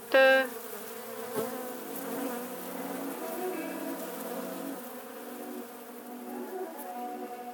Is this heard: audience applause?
no